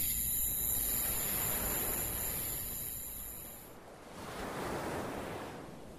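Gentle waves of a calm sea wash steadily onto a beach near Heaven's Gate, the harbor of Paradise City, at night under a full moon; a soft continuous surf that swells slightly and recedes, heard alone with no voices.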